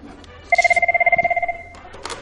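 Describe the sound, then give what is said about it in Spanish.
A telephone bell rings for an incoming call in one rapid burst of about twenty pulses lasting roughly a second, loud, followed by brief faint rustling. “eso es el teléfono.”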